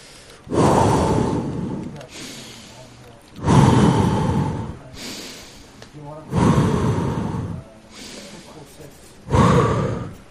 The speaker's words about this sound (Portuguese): O segredo é respiração. Respira fundo.